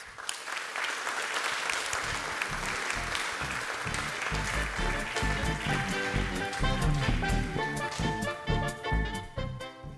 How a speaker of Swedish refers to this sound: Ja, men tack så hemskt mycket Josef och Maria för att ni tog er hit. Vi ger dem en varm applåd.